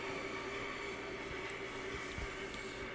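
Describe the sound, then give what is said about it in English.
A train to Deling City rumbles steadily with a low mechanical hum and faint whining tones, a continuous, fairly quiet drone as the carriage gets underway, with no voices. “Okay, there's an announcement saying the train to Deling City is leaving shortly.”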